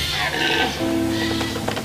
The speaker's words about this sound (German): das Röhren der Hirsche halt durch die Donauauen. Hirschbrunft in Serbien.